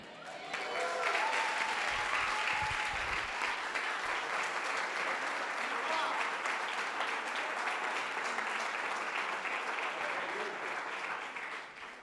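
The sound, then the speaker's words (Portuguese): An audience applauds steadily for about twelve seconds, a dense, even wash of many hands clapping that holds at a constant loudness before easing off slightly at the end. “Aplauda mais forte, gente.”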